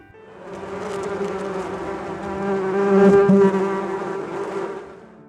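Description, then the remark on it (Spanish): A dense swarm of bees buzzes steadily for several seconds, a thick droning hum that swells louder toward the middle before easing off slightly, with no voices. “Y las abejas lo persiguieron tan terriblemente que al otro no le quedó más remedio que meterse a la casa del santo a pedirle que lo salvara del enjambre de abejas que lo perseguía y que rezara por él.”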